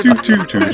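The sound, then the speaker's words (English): A voice quickly sings four short, tuned syllables in a falling pattern, mimicking the Windows XP computer shutdown chime; fairly loud, with nothing else heard. “You, know the, you know the XP shutting down noise?”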